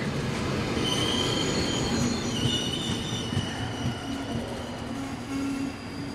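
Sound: train running on rails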